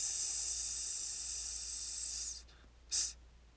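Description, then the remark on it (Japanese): In a vocal breathing exercise using the abdominal muscles, a person produces a loud, steady hissing "sss" held for about two seconds, then after a brief pause lets out one short, sharp hiss. No words are spoken. “今度は、え S を四分音符4拍でやってその後、えー、全音符でね4拍伸ばします、まあ、こんな感じですスススススス”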